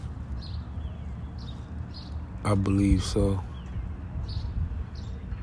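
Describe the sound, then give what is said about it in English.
Small birds chirp intermittently in the background outdoors on a back porch patio, soft high tweets repeating every second or so, while a man speaks briefly over a low ambient hum. “You might hear the birds chirping in the background on my back porch patio, so.”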